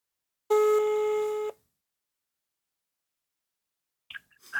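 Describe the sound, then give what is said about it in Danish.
An outgoing phone call rings once with a steady, bright electronic tone lasting about a second, followed by silence, then a faint click and a voice starting as the line connects. “Okay, om vi kan få fat i ham sådan der, lad os prøve at ringe op.”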